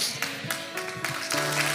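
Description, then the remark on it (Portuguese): A crowd applauds a preacher with dense, steady clapping that keeps up for a couple of seconds, while a few sustained musical tones hum underneath. “Periga esse aplauso aí do pregador se empolgar de vez.”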